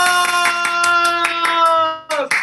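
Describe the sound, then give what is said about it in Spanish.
Steady, evenly spaced hand claps, about ten sharp strikes in a brisk rhythm, loud over a sustained tonal music bed, with a brief dip before a final burst of clapping; applause welcoming a guest. “¡Aplausos!”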